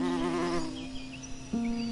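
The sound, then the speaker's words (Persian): A steady insect buzz of bees at the entrance of a cottage garden drones for two seconds, its pitch holding level then briefly dipping and surging back louder near the end. “زنبورها شاید صدای قژقژ در ورودی”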